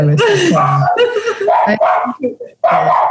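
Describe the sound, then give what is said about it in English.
A dog barks excitedly at someone at the door in a loud, rapid string of high, yappy barks, with a few short yips in the middle before another burst of barking. “The dog's going really mad.”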